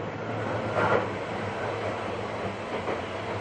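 A Seibu 40000 series electric train (S-Train), running between Hannō and Shibuya, runs steadily, its continuous rumble and low motor hum filling the space, with a couple of brief rail clacks rising above the noise. No one speaks.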